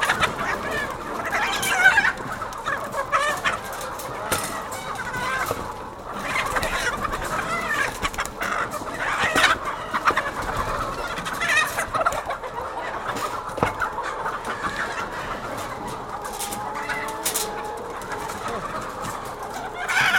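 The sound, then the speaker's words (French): A dense chorus of many hens clucking and squawking continuously, loud, inside a building where about 4,200 hens are being unloaded, with overlapping calls and occasional sharper cackles, and faint human voices underneath. “Là, on a, on a euh, déchargé 4200 poules, juste 200 euh, coques.”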